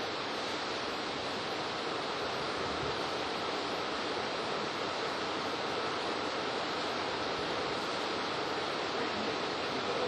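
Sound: rain falling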